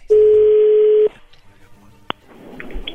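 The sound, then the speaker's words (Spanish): A loud, steady telephone line tone sounds once for about a second as a phone call goes through, then cuts off, leaving faint line hiss, a sharp click and low background murmur. “Ahí entró la llamada.”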